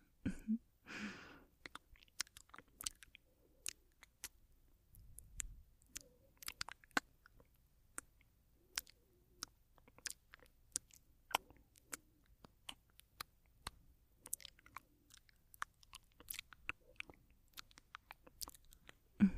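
Binaural mouth sounds recorded close to the microphone: wet clicks, pops and smacks scattered irregularly over quiet, with a brief breathy burst near the start and no speech.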